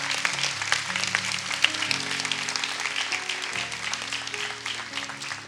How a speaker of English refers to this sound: Come on, clap your hands.